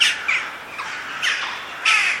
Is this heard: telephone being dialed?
no